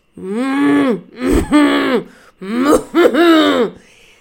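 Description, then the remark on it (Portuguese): A person imitates a cow, letting out four loud, rough moo-like groans in two pairs, each breaking into a raspy, cough-like burst, with no other sounds. “Hum, eu acho que o mugir é tosse.”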